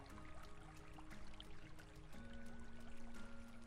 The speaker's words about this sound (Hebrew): אם אתם ישובים ליד מקור מים, האזינו להם כעת. אם לא האזינו לצלילים כאן של המדיטציה, ולתת למים לקחת אתכם, לשטוף אתכם, לתאר את הפחד, ולחלחל מוכנות חדשה בתוככם.